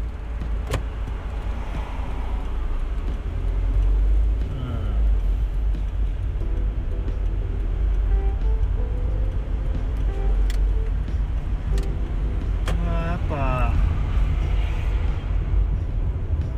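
Steady, loud low rumble of road and engine noise inside a moving car, continuous throughout, with a few brief faint clicks and whirring sweeps over the drone.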